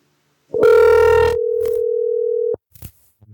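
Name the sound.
telephone call ringing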